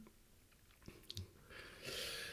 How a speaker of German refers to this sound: Ähm, und während ich den Rum nochmal einschenke.